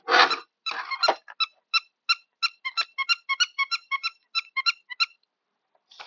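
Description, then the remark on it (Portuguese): A toy book's electronic squeaking: a couple of rough squeals, then a rapid run of short, bright, evenly spaced chirps, with no one talking over them. “Ó o barulho do livrinho, olha.”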